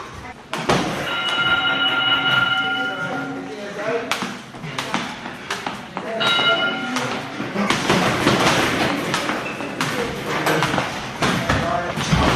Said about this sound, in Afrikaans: Sê net voort wat jy nou gaan doen. Ek, ek gaan nou skiep. Dit is ook deel van de routine partyoggende.